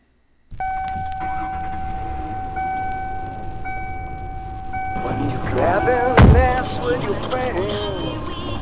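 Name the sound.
getting into car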